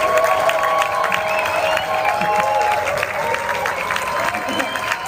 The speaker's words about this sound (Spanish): Así que sin más preámbulo, recibamos con un fuerte y cariñoso aplauso a Ángel Manuel Soto Vázquez.